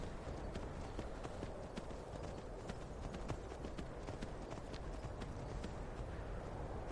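Horse hooves trot along a hard road heading south from Windhelm in a steady, even clip-clop rhythm, sharp hoofbeats repeating throughout over a constant low rumbling background, with no voices.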